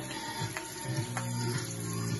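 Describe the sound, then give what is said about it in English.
Shrimp sizzling as it fries in a hot pan in a kitchen, a steady crackling hiss with a couple of sharper pops, continuing evenly throughout with no one talking. “You hear it sizzle? If you don't hear it sizzle, something's wrong.”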